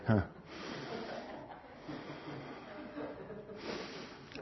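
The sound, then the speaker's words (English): A voice imitates heavy, impatient breathing through the nose: several long, noisy snorting exhales in a row, fairly loud, with no words spoken. “It kind of starts off with a breathing thing a little bit.”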